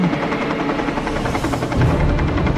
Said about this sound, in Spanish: Pues me suena como un helicóptero. Chingado. ¿Y qué hace un pinche helicóptero por aquí? ¿Sabe? Es helicóptero de la Federal.